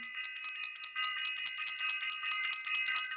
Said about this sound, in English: How's everybody feeling? How are we all doing? I'm going to ring the bell so we can get this out the way.